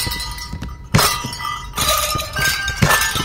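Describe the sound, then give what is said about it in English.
Bright metallic clangs ring out several times, sharp struck tones with sustained ringing pitches layered over a busy background, as basketball shots hit tuned ornaments hung on the hoop nets, shot in order to play a song. “ornaments on the on the nets, and they shoot to make the song Jingle Bells”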